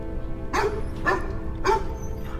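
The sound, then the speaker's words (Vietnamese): A black dog barks three times in the evening in a steady rhythm, each bark sharp, then a faint fourth yelp trails off over a low background hum. “Con chó đen nhà toại bỗng sủa vang rồi im bặt.”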